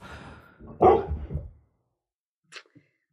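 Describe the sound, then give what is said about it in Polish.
A dog lets out a loud bark with a rough, growling tail, then after a short silence gives a brief, fainter yip. “Co się ewidentnie wkurza.”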